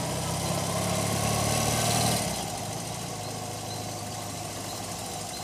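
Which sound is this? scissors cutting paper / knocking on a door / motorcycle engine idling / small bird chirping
motorcycle engine idling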